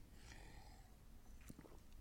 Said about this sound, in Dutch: Even een slokje water.